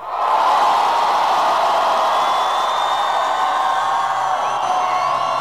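A large crowd roars and cheers continuously, a dense wash of shouting and whooping voices sustained at high volume for several seconds, with a few higher screams rising above the mass.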